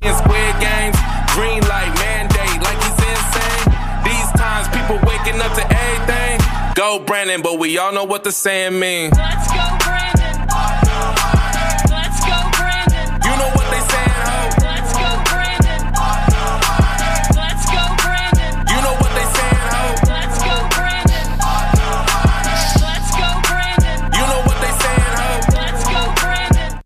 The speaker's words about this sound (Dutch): En daar is, dat is dan in de hip-hop-wereld terechtgekomen. En dat klinkt zo.